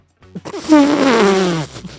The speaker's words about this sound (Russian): Ну, типа, пуки.